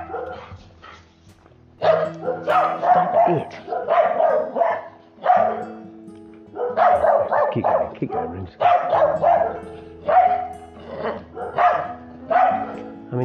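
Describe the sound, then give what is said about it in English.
A dog kept as an alert dog barks repeatedly and loudly, in rapid clusters of sharp barks with short pauses between bursts, continuing throughout with some whiny yips mixed in. “If his job is being the alert dog.”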